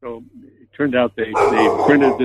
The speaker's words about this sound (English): Sorry about my dog deciding to state his opinion